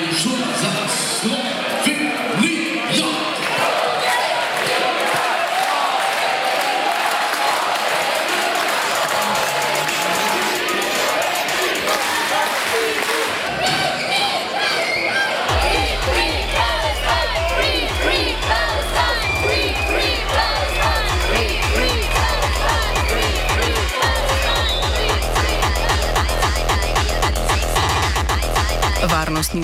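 At a basketball game in an arena, protesters filling the stand behind the Israeli national team's bench chant amid the regular cheering: a large crowd roars and shouts continuously, loud and dense, voices blending into chants; about halfway through, a heavy rhythmic thumping joins in.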